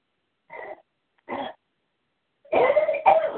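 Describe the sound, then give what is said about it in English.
Two short, separate coughs followed by a louder, harsher burst of coughing, clear with quiet gaps between, no talking. “I mean, still coughing.”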